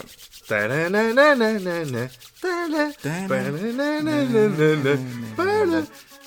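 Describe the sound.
A voice imitates a tombola raffle drum spinning to draw a candidate for the Odmira municipal council, making a warbling, rolling vocal noise that rises and falls in pitch across about six seconds, with a few short breaks.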